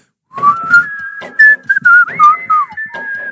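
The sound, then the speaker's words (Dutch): Someone whistles the short, catchy jingle of the HEMA department store, the melody gliding and stepping through a few notes over about three seconds, with faint breathy noises underneath. “Oh, maar nou- en zelfs toeristen die van Centraal naar de Dam lopen, kunnen dat gewoon al fluiten.”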